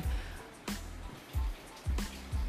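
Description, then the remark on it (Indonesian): Soft, steady rain falls at night, hissing in the background, broken by a few dull, heavier drips or thumps landing at irregular intervals. It is fairly quiet, with no talking. “karena malam ini hujan kayaknya kita akan pertama membahas tentang penerimaan masyarakat tentang tentang hujan dan bagaimana cara hujan itu turun ke bumi”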